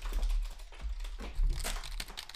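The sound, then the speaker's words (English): Rapid clicking of keys on a computer keyboard as someone types in a Word document, a steady run of crisp taps with slight irregular rhythm and no voices, over a low background rumble. “then I share it on Facebook and then I'm typing”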